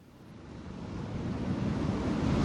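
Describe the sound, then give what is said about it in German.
Choppy lake water churned by strong wind, a steady rushing roar of waves and gusts that swells gradually louder over a couple of seconds, with no voices present. “Der See wurde durch einen starken Wind aufgewühlt.”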